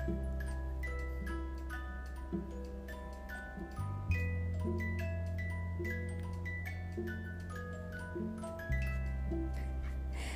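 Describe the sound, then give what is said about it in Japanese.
A mechanical trick clock (karakuri clock) plays a sustained melodic chime tune, with steady tonal notes and a faint ticking rhythm, fairly loud, with no voices over it. “すいません仕掛け時計が鳴っております”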